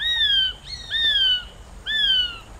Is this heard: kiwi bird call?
yes